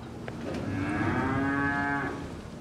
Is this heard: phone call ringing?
no